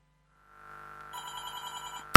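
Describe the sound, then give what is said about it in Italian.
A telephone rings with a steady electronic tone that swells in, then turns into a bright, warbling multi-tone ring pulsing rapidly, ending in a sharp burst. No one speaks. “Prendiamo la telefonata.”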